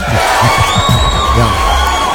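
A loud crowd cheers and claps continuously, with high whistles and whoops rising above the dense, steady roar of applause, as an audience applauds again to welcome a guest.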